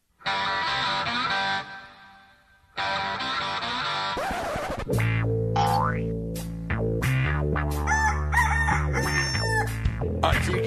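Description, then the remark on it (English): A loud rooster crows twice in long harmonic calls, then a burst of springy cartoon boings and zany sound effects tumbles over a busy, bright musical backdrop. “You're going to hear a rooster. You're going to hear boings.”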